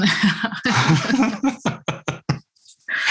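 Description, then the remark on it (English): A woman with a lingering cough coughs: a rough, drawn-out fit that breaks into several short, sharp hacking bursts in quick succession, then a brief pause before another rasping cough. “excuse me, I need to cough.”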